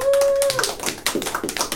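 A short burst of audience applause, many hands clapping in a dense, steady patter that fills the whole moment, with a brief high tone at the very start.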